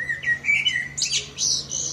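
common blackbird song

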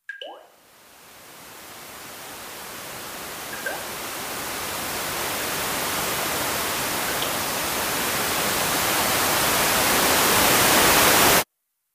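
white noise

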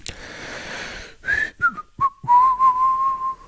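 person whistling

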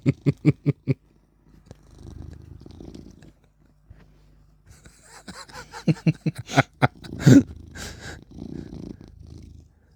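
cat purring

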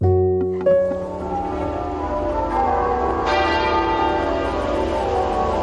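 church bells ringing

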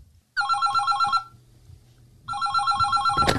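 telephone ringing

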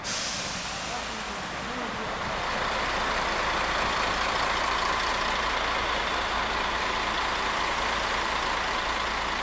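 bus engine idling

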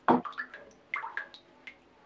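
shower water running

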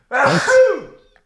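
sneeze

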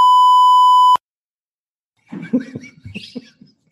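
censor bleep tone

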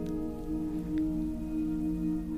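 heavy rain pattering

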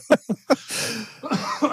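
cough

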